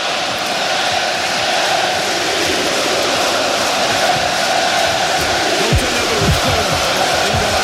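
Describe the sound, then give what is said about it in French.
A huge crowd at the Stade de France during a France rugby match roars in a loud, steady wash of noise, with massed voices chanting "qui ne saute pas n'est pas français" and cheering, and a few louder sung shouts rising out of it near the end. “Écoutez, qui ne saute pas n'est pas français.”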